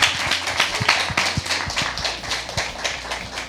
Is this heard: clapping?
yes